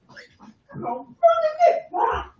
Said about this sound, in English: Oh, that's my aunt talking to the dog. I'm just, I'm sorry. I didn't realize she had just come in the house.